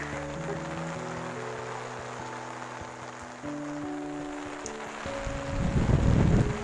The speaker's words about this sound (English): oh, it's getting windy.